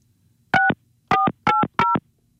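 Four short electronic keypad tones from a phone being dialed, each a crisp two-pitch beep, the last three in quick succession after a brief pause, heard clear with no talking.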